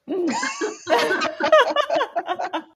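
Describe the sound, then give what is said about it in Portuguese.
Someone clears their throat in a series of raspy, halting bursts, with voiced, laugh-like sounds mixed in across a few seconds. “me deu pigarro.”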